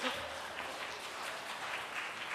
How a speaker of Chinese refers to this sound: 会感动，请把姐妹，请把手举起来，掌声把一切荣耀归给神。